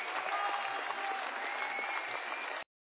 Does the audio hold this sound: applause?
yes